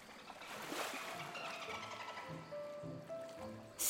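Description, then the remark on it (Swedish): Thin, wavering whistles rise and hold over a watery underwater wash, with scattered bursts of rapid clicking and a sharp bright splash at the very end. No one speaks. “Det enda ljudet som hördes kom från en delfin.”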